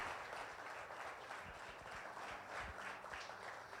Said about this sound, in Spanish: Le damos un aplauso a nuestro Dios.